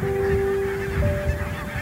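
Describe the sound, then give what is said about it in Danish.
A dense chorus of a flock of about a thousand barnacle geese honking and yelping together as they take flight into the wind, calling continuously with overlapping, busy calls and low wind rumble underneath. “Og det er faktisk en smuk gås, den her bramgås.”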